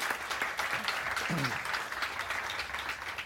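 A crowd claps steadily for a few seconds, a dense, even wash of applause that stays fairly loud throughout, with a brief faint voice just audible beneath it.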